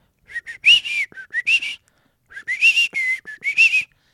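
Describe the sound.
A person whistles a bird-like song in two bursts of quick, warbling chirps and trills separated by a short pause, fairly loud with no talking.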